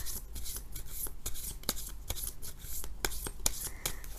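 Tarot cards being shuffled for a tarot reading, a steady run of soft papery riffles and light slaps with several sharper snaps scattered throughout, no voices.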